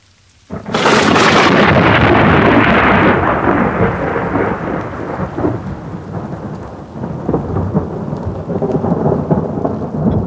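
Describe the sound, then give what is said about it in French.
A loud thunderclap bursts in after a brief quiet, rolling into a sustained rumble over steady, heavy rain that keeps pouring for the rest of the stretch, with no voices. “À cause des températures, il y aura des petites averses et de l'orage.”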